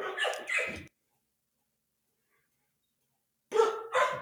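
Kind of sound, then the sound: animal, dogs barking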